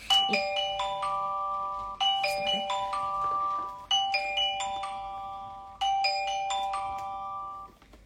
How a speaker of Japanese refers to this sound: すごいあの警報がすごいですね